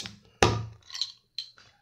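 A beer bottle cap is pried off with an opener held the wrong way so the cap stays intact: one sharp metallic pop followed by a brief hiss and a couple of lighter clinks, with no one talking.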